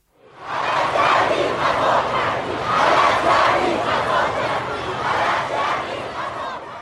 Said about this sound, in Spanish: Por eso miles de personas salieron a la calle a gritar cosas como esta.